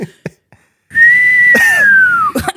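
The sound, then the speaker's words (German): A person whistles too loudly: a single loud, sustained whistle holds a steady high pitch for over a second before sliding slightly downward, preceded by a few short clicks and followed by brief noises. “Ja, wenn du pfeifst, dann pfeifst du immer zu laut.”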